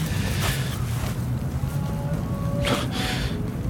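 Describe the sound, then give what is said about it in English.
Steady wind blowing over open sand with no ocean, a continuous low rushing roar with a couple of brief, hissing gusts rising above it. No voices, fairly loud throughout. “Is that wind?”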